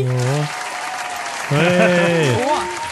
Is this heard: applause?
yes